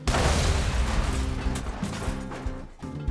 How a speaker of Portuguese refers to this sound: Por isso ocorreu a explosão, que reduziu o armazém a cinzas.